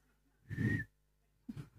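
A person attempts to whistle poorly: a breathy puff with a thin, faint whistled tone, then a shorter second blow that is mostly air, with no talking.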